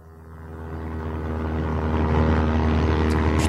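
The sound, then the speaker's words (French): A propeller airplane engine drones steadily with a low harmonic hum, growing gradually louder over a few seconds as if revving up; no voices. “Putain, mais il fait du bruit cet avion, comment ça se fait C'est parce que c'est un avion à hélice.”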